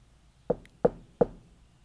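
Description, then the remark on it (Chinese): Three soft, evenly spaced knocks on a door late on a cold night, each a short dull thud with a slight ring, heard on their own against a quiet background. “正要开始看第一页时，突然听见隐隐约约的敲门声。”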